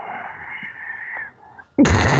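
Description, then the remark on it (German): A breathy rustling sound of a microphone being rubbed runs for over a second, dips briefly, then returns as a sudden louder, harsher burst of scraping noise. “Du hörst dich gerade an, wie die, Perver die Perversen auf TikTok, die das Mikrofon streicheln.”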